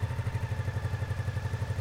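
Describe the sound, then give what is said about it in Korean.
A motorcycle engine, started by turning the key after the bike was connected to an external battery, runs at a steady idle, its low, rhythmic thumping pulsing evenly throughout at moderate volume, with no voices present. “그리고는 키를 돌리자 힘찬 엔진 구동 소리가 들린다.”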